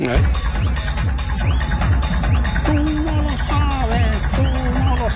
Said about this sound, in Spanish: Ponte las gafas de sol porque nos vamos a Murcia de rave.